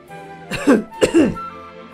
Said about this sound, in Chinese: 有人咳嗽了一声。